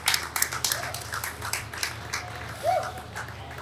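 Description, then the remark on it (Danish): A round of applause from a small crowd, scattered claps rattling steadily for a few seconds, with faint voices murmuring underneath. “Der kommer en klapsalve mere.”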